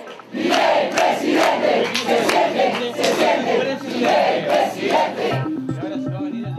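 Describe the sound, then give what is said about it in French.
A packed hotel hall in central Buenos Aires, Argentina, full of supporters roars, cheering and chanting together in loud rhythmic surges for Javier Milei after he came first in the presidential primaries, then the crowd noise drops away into a few stepped musical tones at the end. “Dans un hôtel du centre-ville de Buenos Aires, la salle est pleine et des supporters applaudissent à tout rompre le héros du jour.”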